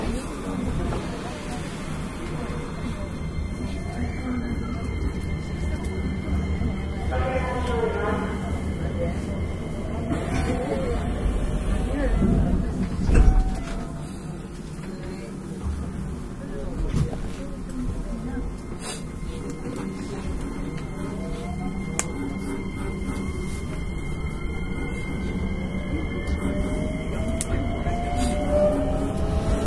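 A Hankyu 9300 series train running as a Kyoto Line limited express from Kawaramachi to Umeda: a steady, loud low rumble of wheels on rails, with high motor whines that rise and shift in pitch and occasional clunks over track joints.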